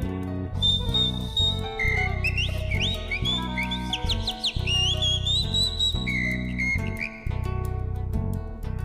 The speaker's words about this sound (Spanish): Silba la calandria.